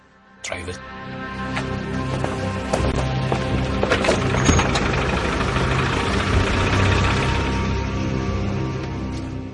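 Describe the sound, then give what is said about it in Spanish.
A Land Rover engine drones steadily as the vehicle climbs a mountain track in the mountains of Berguín, driven to reach a plane crash site, with a low rumble under frequent rattles, creaks and knocks from the bodywork, loud throughout. “Dijeron que tenían, que les habían informado de que un avión se había estrellado en las montañas de Berguín y que necesitaban requisar nuestro Land Rover para llegar hasta allí.”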